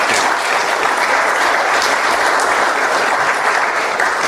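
Steady, loud audience applause, a dense continuous patter of many hands clapping at once, holding an even level throughout without any voices breaking through.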